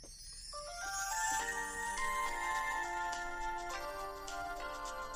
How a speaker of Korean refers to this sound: 아까 저기 제가 제일 좋아하는 곡예 잠깐 들려드릴까요? 뭐 마이크 근처에 대고 뭐 한번 들어봐요.